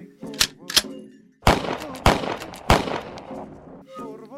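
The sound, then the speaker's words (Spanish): Five sharp gunshots ring out at irregular intervals in a forest, loud, with a chaotic echoing tail, while agitated voices shout and cry out in between. “Los árboles defienden como pueden a su gente, reciben los disparos, los rebotan.”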